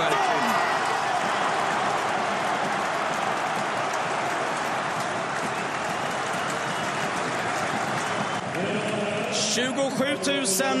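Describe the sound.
A large stadium crowd applauds and cheers in a dense, sustained roar of clapping that holds steady for about eight seconds before thinning, with a voice emerging near the end.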